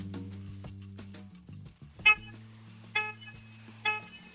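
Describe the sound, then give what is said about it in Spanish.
Three short, bright car horn beeps from a 2013 car sound at roughly even intervals over a steady low engine hum, clear, with no talking. “Venga, pues vamos a, ver cómo suena ese claxon.”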